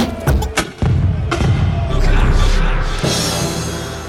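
A short, loud radio jingle built from punchy thuds and booming impacts in quick succession, swelling into a dense, roaring wash of sound that runs to the end, with no talking over it.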